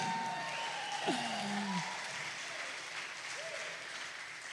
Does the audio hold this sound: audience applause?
yes